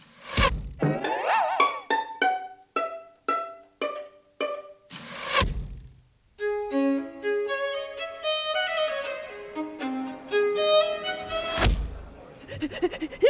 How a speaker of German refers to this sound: Oh, was ist denn da los? Ein Mikado-Stäbchen hat die Holzdecke durchbohrt.